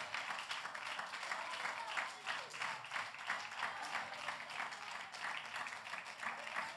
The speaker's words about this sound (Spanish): Si ese aplauso es para mí, está bueno, pero si es para Dios, tiene y déselo con fuerza, por favor.